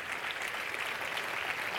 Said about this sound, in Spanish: Si le va a dar ese aplauso al Señor, déselo bien.